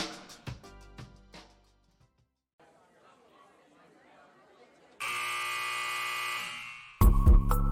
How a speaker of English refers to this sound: The sound of the final buzzer means it's hangover time so grab a drink and join your host, Alphonse Sidney, for a Miami Heat Beat post game show.